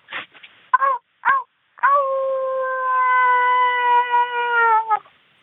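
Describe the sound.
A person imitates a werewolf howl: a few short yelping barks, then one long, steady, wavering howl held for about three seconds before cutting off, with no speech.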